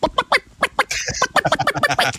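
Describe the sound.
A person imitates a chicken, letting out a quick run of clucking bursts, choppy and uneven, with a short drawn-out squawk in the middle.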